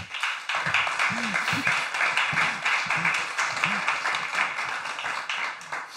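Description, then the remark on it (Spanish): An audience breaks into steady, dense applause lasting several seconds, a crackling wash of many hands clapping at once, with a few voices faintly calling out underneath. “Por favor, un aplauso a.”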